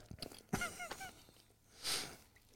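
Wet biting and chewing noises as someone takes another bite of a curry sausage snack, with a few sharp crunches near the start and a louder rustling burst toward the end, plus a brief voiced murmur in between.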